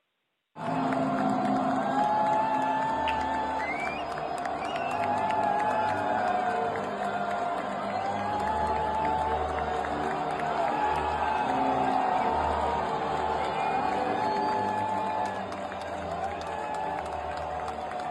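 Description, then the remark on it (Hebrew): A large stadium crowd roars and applauds continuously, with shrill whistles of disapproval rising and falling over the dense wash of noise throughout. “אה, אנחנו שומעים את מחיאות הכפיים, תוך כדי שריקות הבוז, והשריקות כן.”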